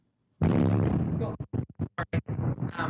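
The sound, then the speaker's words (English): A loud, close explosion in Gaza erupts with a deep rumbling boom, followed by a quick series of shorter, sharp bursts and pops. “to go into some sort of a bomb shelter or whatever, because I can hear those explosions going off right near you.”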